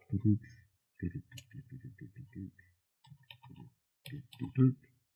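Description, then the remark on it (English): Bursts of keyboard typing, quick clusters of clacking keystrokes separated by short pauses, with a few sharper high clicks mixed in. “um, oh wow, sorry, typing.”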